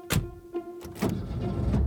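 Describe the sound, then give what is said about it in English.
A few sharp clunks and clicks are followed by a car engine turning over and settling into a steady low rumble as a man sets off in his car on a two-hour drive at about 10 p.m., with no voices. “He hops into his car to make the two hour drive.”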